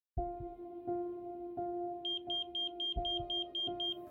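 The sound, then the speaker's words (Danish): A pager beeps at night: a quick run of about ten high-pitched electronic chirps kicks in halfway through, over a steady pulsing electronic drone, loud, with no talking. “Personsøgerens bippen vækker ham af nattens søvn.”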